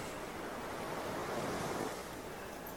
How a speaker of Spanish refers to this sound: yo creo que el mar va a ser el, el mejor aliado para escuchar, bueno, el mar y todo este entorno tan bonito.